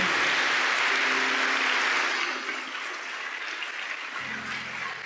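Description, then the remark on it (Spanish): An audience applauds to honor the memory of the late Daniel, in a steady, dense wash of clapping that stays loud for a couple of seconds, then eases slightly and continues on, with a low hum underneath and no talking. “Él también es parte de ese aplauso y de ese reconocimiento.”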